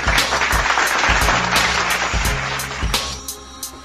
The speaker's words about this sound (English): Give yeah, that shit a round of applause.